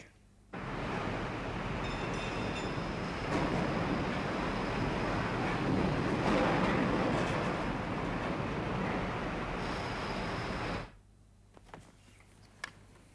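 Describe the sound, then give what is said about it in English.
A train thunders past on the rails, a loud, steady roar lasting about ten seconds that starts and cuts off abruptly, with a faint high metallic whine riding over it. “That noise means the strike is over.”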